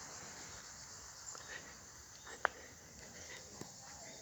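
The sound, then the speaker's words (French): A faint, steady high-pitched insect chorus hums and chirps continuously in an open natural outdoor setting among trees and vegetable gardens, at midday siesta time during a walk, with a brief sharp click partway through and no one speaking. “des insectes, des potagers, des bruits de voix.”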